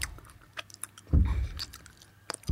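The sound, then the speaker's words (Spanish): Crunchy chewing of hay, with irregular dry crackles and one louder, fuller bite in the middle before the munching tapers off. “Eso le dijo el elefante, luego se dio la vuelta y lo dejó ahí plantado, masticando heno.”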